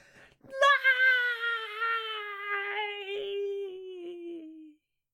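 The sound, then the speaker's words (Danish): A single long, wailing scream from one voice, loud and sustained for about four seconds, its pitch sliding slowly downward before cutting off, with no other talk around it. “og så kunne de bare høre et skrig om bagved.”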